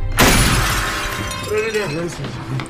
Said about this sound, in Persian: نوری رو میبینه نوری فرار میکنه به پنجره شلیک میکنه